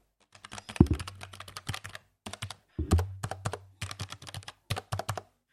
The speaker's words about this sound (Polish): Bardzo mi się podoba dźwięk klawiszy, tak? Czyli uwaga, robimy SMR